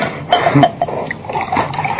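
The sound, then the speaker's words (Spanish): Water from a glass splashes and pours in a short, uneven burst of sloshing sounds as the glass of water is spilled, moderately loud, with no one speaking. “Aquí está el agua. Tómala, querido.”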